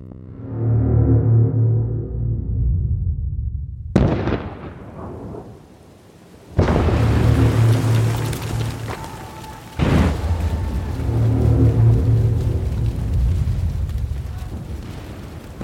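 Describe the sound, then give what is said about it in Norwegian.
Steady, heavy rain pours down in a constant hiss in Belgium in autumn 1917, broken by several sudden loud cracks and deep rumbling booms like thunder, with no one speaking. “Regnet øser ned.”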